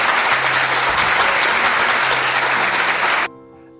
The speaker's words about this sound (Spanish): Muchas gracias. Un aplauso, por favor.